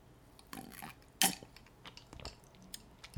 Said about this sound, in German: Ich trinke mal kurz einen Schluck.